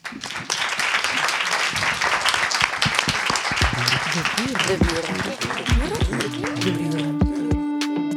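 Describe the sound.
A crowd applauds steadily, dense rapid clapping sustained throughout, with voices and cheering audible beneath it and a tonal musical sting entering near the end.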